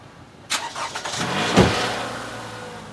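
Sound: car engine starting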